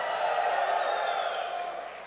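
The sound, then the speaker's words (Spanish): A church audience gives a shout of victory to the Lord, shouting and cheering together in a steady, dense roar that holds loud throughout, then eases slightly toward the end, with no single voice standing out. “Oh, da un grito de victoria.”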